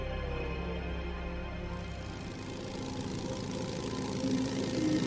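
A motorcycle engine idles, a steady low rumble with a throbbing, uneven pulse that holds for several seconds and swells slightly louder at the end. No one speaks.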